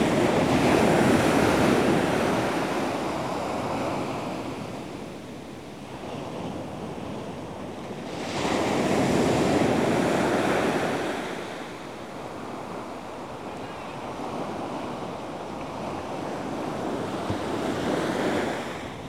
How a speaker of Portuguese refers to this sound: Sentimos as ondas do mar. Sentimos o relaxamento das ondas do mar.